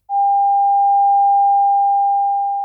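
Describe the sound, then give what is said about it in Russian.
A single steady pure tone, clear and fairly loud, holds unchanged for nearly three seconds with no other sounds, fading only slightly before it stops abruptly. “Те клетки, которые находятся у основания улитки, то есть в самой широкой ее части, воспринимают только звуковые колебания высокой частоты — от полутора тысяч до 20 тысяч герц. Вот такие.”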